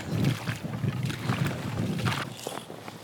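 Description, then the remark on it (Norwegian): Strong southerly wind roars steadily and buffets the microphone with a dense low rumble, while brief hissing gusts rise and fall over about three seconds, out on the ice in the cold during ice fishing. No one speaks. “Det er eh, sterk sønnavind.”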